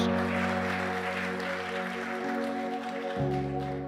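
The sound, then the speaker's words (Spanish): A crowd applauds God loudly and steadily, a dense wash of clapping over sustained keyboard chords that shift twice during the few seconds. “¿Cuánto le dan el aplauso fuerte a Dios?”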